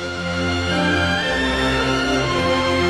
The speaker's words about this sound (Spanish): Lo que estás escuchando, lo que están escuchando es eh, la música del final de los títulos, Irán, cuando se acaba la película The Bible. La Biblia. In the beginning, ¿no?